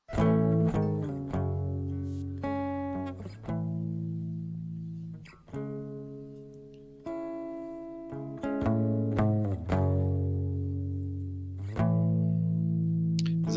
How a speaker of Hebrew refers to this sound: בס אקוסטי, דרך אגב. לא, לא, זה גיטרה אקוסטית. רחש, רחש, כן? נראה לי כזה גיטרה גדולה כזאת. אה, אה, האקורדים האלו אה, משגע, זה פשוט משגע, המלודיה הזאת מדהימה.